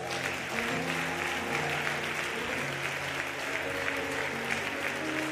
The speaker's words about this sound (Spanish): Otro aplauso a Jesús.